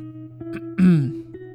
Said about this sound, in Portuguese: e eu tô com, com esse pigarro escroto. Que isso é, é outra, outro fator que quando eu fico com sono acontece. Vem, vem a porra do, do, do desse pigarro aqui na garganta.